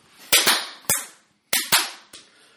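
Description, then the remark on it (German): Six sharp, loud hand claps land at uneven intervals, some in quick pairs and others after longer gaps, with no steady beat and no voices. “Und ich klatsche unrhythmisch.”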